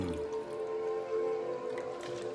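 Water pours steadily into a drinking glass, a continuous gurgling stream with a ringing tone as the glass fills, heard alone without any talking.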